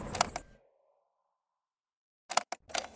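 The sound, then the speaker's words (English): A strange, sharp clacking sounds off in two bursts, a pair of cracks with a faint ringing tail, then silence, then a quick cluster of three or four more, like distant gunshots. “I heard that strange clacking noise like gunshots in the distance.”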